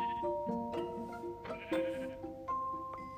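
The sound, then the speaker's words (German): A few short bleats from a black sheep in a video game, layered over steady tonal game sounds, with no one talking. “Das ist ein schwarzes Schaf.”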